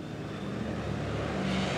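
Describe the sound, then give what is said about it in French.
A propeller bomber's engine drones with a steady low hum and broad roar, swelling slightly louder as it powers up to take off again from a wet beach and return to an airport near San José, Costa Rica; continuous with no voices. “Les pilotes redécollent et retournent à l'aéroport situé près de San José au Costa Rica, où ils cachent le bombardier de Bacardi depuis des mois.”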